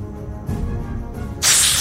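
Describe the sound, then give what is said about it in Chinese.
A snake hisses: a sudden, loud, breathy hiss bursts in after a low rumbling background and holds steady to the end. “什么东西？啊，蛇！”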